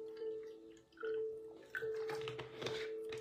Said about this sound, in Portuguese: Separe o seu copo com água. Estou com a minha canequinha aqui, deixa eu até encher mais de água para poder beber, para poder beber.